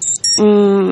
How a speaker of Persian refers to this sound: این صدای بوغ چیه هی میاد از گوشی منه و یعنی چی یعنی این بوغ اسکنر توی دوربین گوشیه که هر پنج دقیقه بار چشما رو اسکن میکنه